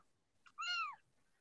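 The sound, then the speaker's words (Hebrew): A single clear meow from a female cat, rising then falling in pitch and lasting under half a second, heard after a short chirp-like onset, with no talking. “אתם שומעים אגב את החתולה?”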